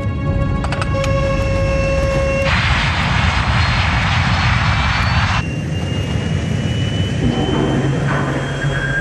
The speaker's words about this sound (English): Just four kilometers from touchdown, Flight 52 has been caught in violent wind shear. To save the plane, Captain Caviedes applies full throttle, burning up more of the plane's precious fuel.